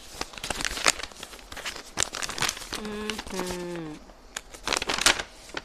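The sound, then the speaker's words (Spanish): A large hand-made paper map, taken from a backpack, is unfolded, crinkling and rustling in sharp, irregular bursts throughout, with a short, pitched vocal murmur partway through. “Hice un mapa, pero ¿dónde está mi mapa?”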